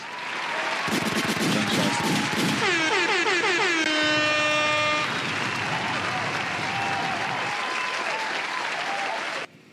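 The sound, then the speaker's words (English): A canned applause effect: dense, steady clapping and cheering that runs for about nine seconds, with loud air-horn blasts sounding over it partway through, then cutting off abruptly. “All right, applause, applause. Another applause, yeah, why not?”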